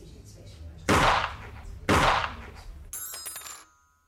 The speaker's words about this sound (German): Ihr Mann hat geschossen. Drei Schüsse. Zwei. Drei. Drei waren es. Nein, zwei. Herr Ober, was sagen Sie? Äh, ich habe nur zwei gehört, aber ich kann ja nicht durchsehen.